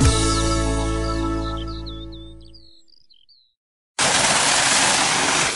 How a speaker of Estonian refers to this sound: vesi tuleb ööbikuorust ülevalt alla, laskub siia ratta peale ning see hääl tuleb siis ööbikuoru hüdrotöökoja muuseumi veerata pealt, nii et seda vetemängu on siin nii looduslikku kui ka suudatud ja seda jõudu